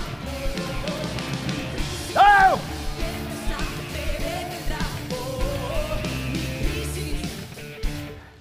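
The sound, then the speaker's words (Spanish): A church audience shouts and cheers together at the preacher's call to shout, in a loud, sustained roar, with one sharp rising yell standing out early on and scattered whoops throughout. “Grita.”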